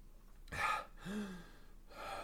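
drinking water

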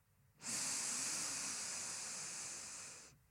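slow deep inhalation

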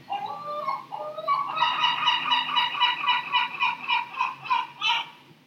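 gull calling

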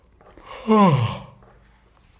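a yawn

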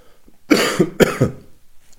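cough

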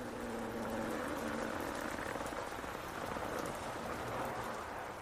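heavy rain falling

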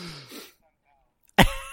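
cough into the microphone

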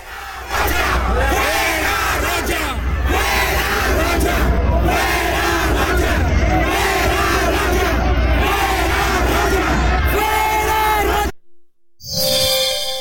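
crowd of protesters shouting

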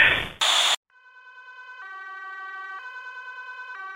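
ambulance siren

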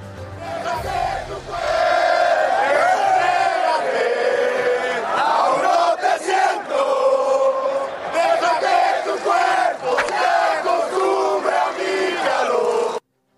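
football fans chanting

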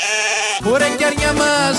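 sheep bleating

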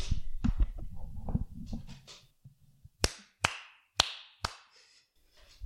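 hand clapping

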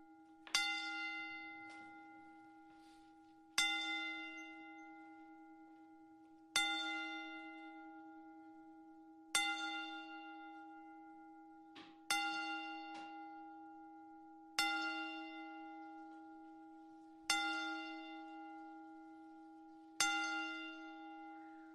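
ten bell salute tolling

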